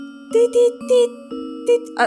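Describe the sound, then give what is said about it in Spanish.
A voice imitates a Morse code-like tapping heard while lying in bed, sounding a quick series of short, evenly paced clipped syllables over a steady hum, moderately loud, with a brief pause midway. “Haz de cuenta que una clave morse.”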